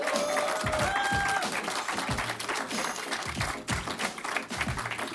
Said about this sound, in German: Applaus